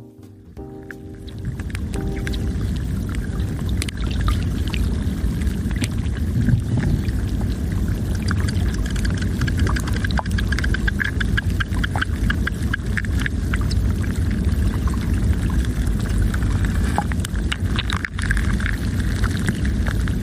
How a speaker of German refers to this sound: hört sich das Schmelzen eines Gletschers von innen an. Genau gesagt, das des Morteratsch-Gletschers in den Schweizer Alpen.